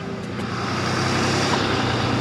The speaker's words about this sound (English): Big black pickup truck passing.